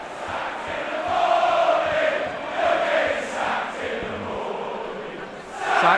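A small group of Tottenham away football fans in a corner of Old Trafford stadium, in the north of England, chant together, a sustained, sung crowd chant that rises and falls in waves, swelling again at the end.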